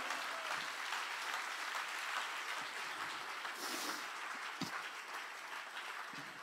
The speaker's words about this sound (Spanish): Si le va a dar el aplauso.